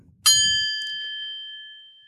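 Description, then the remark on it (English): A single bell is struck once, giving a bright metallic ding whose clear ringing tone sustains and slowly fades over about two seconds, heard alone with faint low rumble at the start. “I'm going to ring the bell.”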